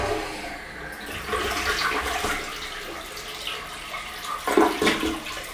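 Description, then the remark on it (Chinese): An ordinary toilet (not a bidet-style toilet) flushes with a steady rushing, gurgling swirl of water that carries on for several seconds, swelling briefly near the end with a louder gush. No one speaks. “我给大家听听看，能不能听到冲水的声音？”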